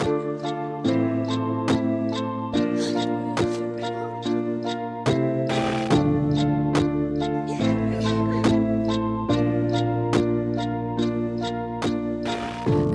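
A pop song plays loudly and steadily, with a regular driving beat, sustained synth and bass chords, and no clear vocals in this stretch.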